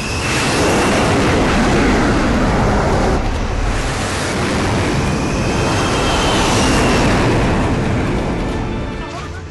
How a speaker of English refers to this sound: Um, and then the jets take off, right? Is that where we are? The carrier yep. jets. jets take off. There they go.